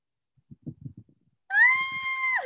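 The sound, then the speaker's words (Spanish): A cat lets out one loud, drawn-out meow, its pitch holding steady before dipping at the end, after a few soft, low muffled thumps. “Y el gato, y el gato.”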